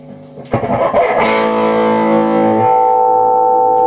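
An electric guitar through an amp on its clean channel with the headroom turned down to minimum, breaking up, with reverb from a pedal in the effects loop: a few strummed chords giving way to a sustained, slightly gritty note with a wash of reverb, loud, with no talking.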